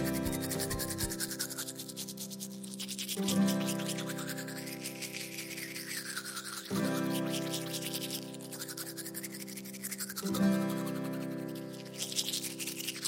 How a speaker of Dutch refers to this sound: Ja, we gaan tanden poetsen met een tandenborstel in onze mond. We gaan van links naar rechts en van onder naar boven, helemaal in het rond.